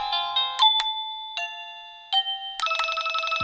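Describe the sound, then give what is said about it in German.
A wireless doorbell plays an electronic chime melody of several bright, sustained tones stepping between pitches, ending in a quick burst of busier notes. No one speaks. “So, das ist der Ton, den ich immer eingestellt lasse.”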